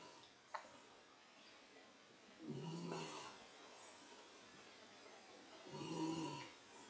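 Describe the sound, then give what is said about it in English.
A female dog snores softly, two slow, raspy snores a few seconds apart against a quiet background, with a faint click just before the first one. No one speaks. “Can you hear my dog snoring, by the way?”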